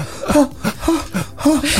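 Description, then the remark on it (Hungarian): A person imitates heavy, gasping breathing, with about four rapid, breathy, partly voiced inhale-exhale bursts in a quick rhythm. “Nehéz légzés.”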